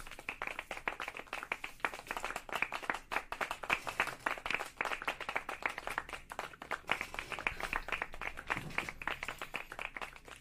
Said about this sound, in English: Clap it up.